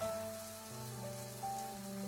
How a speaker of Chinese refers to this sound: 走进黑漆漆的浴室，只有一间淋浴室传来响声。